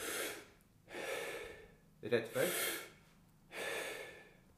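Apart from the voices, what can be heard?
rapid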